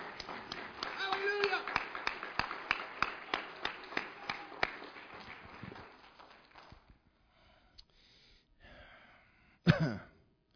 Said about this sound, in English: Let's give him a hand clap of adoration.